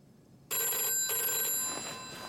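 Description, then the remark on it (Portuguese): A telephone bell rings loudly in an apartment in Paris at six thirty in the morning, its bright metallic trill coming in quick repeated bursts after a brief silence, with no one speaking. “o novo diretor da Airbus, Bernard Latier, pula da cama e atende o telefone”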